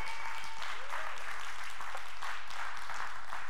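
A crowd applauds steadily to welcome a guest and his family, a dense wash of many hands clapping at an even, sustained level with no voices standing out, continuing without pause for a few seconds.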